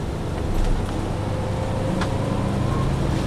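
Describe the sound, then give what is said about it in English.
Steady, loud low rumble of a city bus engine with constant road and cabin noise, heard from inside, with a few faint clicks and rattles and no one speaking. “Um, do you know if this bus, uh, I mean, sorry, uh, this bus goes back to the green line or the L at all?”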